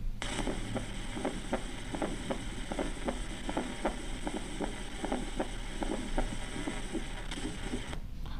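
Soft, regular heartbeat thuds with a fourth heart sound repeat steadily over a constant low hum and hiss, each beat faintly doubled, heard as if through a stethoscope, with no talking.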